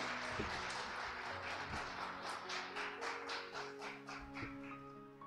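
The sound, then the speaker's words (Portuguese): A crowd applauds Jesus, clapping in a steady rhythm, sharp repeated bursts running through the whole stretch, over sustained musical tones underneath. No one speaks. “Aplauda Jesus na sua casa também.”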